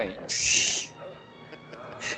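An owl calls with a loud, harsh, high-pitched screech lasting about half a second, followed after a pause by a shorter, fainter cry. There is no talking.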